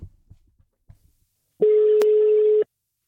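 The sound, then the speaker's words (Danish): One steady ringback tone on an outgoing phone call made for a radio programme, a loud, even buzz lasting about a second, after a few soft low murmurs. “Lad os lige prøve at høre en til, vi, øh, vi ringede til.”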